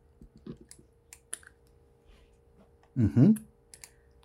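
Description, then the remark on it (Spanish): Scattered sharp clicks, like keys tapped on a keyboard, sound in an irregular pattern, and a short burst of voice interrupts them partway through. “Y si, nada más una cosita, yo no sé qué estás haciendo, pero es que el clic, un clic ahí se escucha mucho.”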